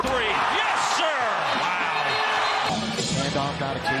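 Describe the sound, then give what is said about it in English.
A basketball player spins and slam dunks, the ball clanging against the rim amid a loud, roaring arena crowd, with the cheering swelling sharply after the dunk and voices shouting over the noise. “He spins and he slams. A spin and a slam for Anthony Davis.”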